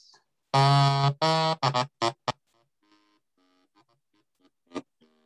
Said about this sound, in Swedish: Fast alltså en rankett är ett krumhorn fast man har vikt ihop det nio gånger, så det är en väldigt liten burk, men den låter så här.